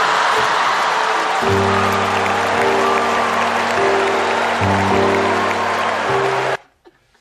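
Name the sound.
concert audience applauding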